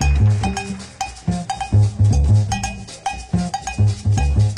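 A big band jazz performance plays at full volume, with punchy ensemble horn stabs over driving bass and bright, clanking percussion keeping a steady swing. No one speaks.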